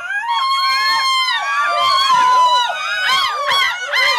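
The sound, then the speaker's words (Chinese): Human voices imitate seagull calls at the annual seagull imitation contest in the small Belgian town of Adinkerke, with contestants from across Europe: sustained, wavering high-pitched cries with rich harmonics, followed by a run of short, sharp squawking yelps, loud throughout with no ordinary speech. “比利时小镇阿丁克尔克举办一年一度的海鸥模仿大赛，有穿特殊服装 cosplay 还可以再加分，不分男女老幼，热情参与。”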